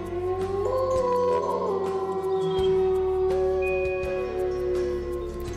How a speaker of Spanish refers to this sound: En el mes de enero es la luna de lobo, porque las manadas de lobos hambrientos aullaban durante la noche.